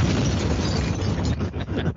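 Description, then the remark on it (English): Keys rattling and clattering against a floor in a dense, continuous jumble of loud metallic noise, with a few brief dips in the last half second. No voices. “those, those are the sound of the keys rattling against the floor.”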